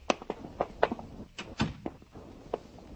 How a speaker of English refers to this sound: You close the door. Close it yourself.